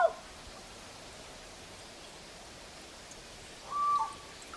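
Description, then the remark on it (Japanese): A single short, whistle-like call of a nocturnal Amami Ishikawa's frog sounds once from a distance near the end, rising over a steady hiss of nighttime mountain forest ambience under partly cloudy skies, with a faint brief note at the start. “夜行性のカエルなん、えー、夜行性なんで夜来たらはっきりとないといけなんです今ちょっと曇り加減になった関係で奥の方で、ちょっとちっちゃかったんです一声だけ鳴いたんですがこれが、え奄美奄美石川ガエル。”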